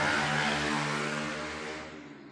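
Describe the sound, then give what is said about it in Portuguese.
A loud motorcycle engine drones past with a steady, buzzing rumble, its roar gradually fading as it moves away, with no one speaking. “Mas a primeira vez que a gente foi lá, a moto do caralho passando.”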